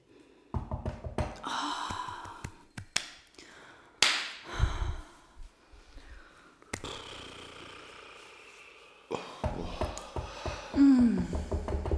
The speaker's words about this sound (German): Erste Improvisation: Klatschen, Klopfen, Stöhnen. Für uns drei, bitte.